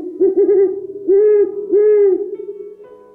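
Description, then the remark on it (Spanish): An owl hoots three times: a quick wavering trill, then two longer, steady hoots, with a soft lingering tail after the last one and no talking. “No, la verdad es que soy un búho de ojos grandes.”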